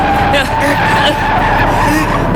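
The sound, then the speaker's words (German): A Beetle car brakes hard during an earthquake with a loud, steady screech of skidding tires and a rumbling engine underneath, sustained for a couple of seconds. “Halt an und raus aus dem Wagen.”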